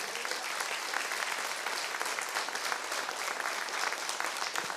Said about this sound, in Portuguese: Você pode aplaudir ao Senhor por isto.